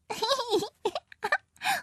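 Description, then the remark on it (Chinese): A voice playfully imitates a baby crocodile's wet, sloppy kiss for its dad: a drawn-out voiced moan followed by three short, slurpy smacking bursts, moderately loud, with brief pauses between them. “鳄鱼宝宝可是会给他的爸爸一个爽爽的、潮潮的吻，像这样。”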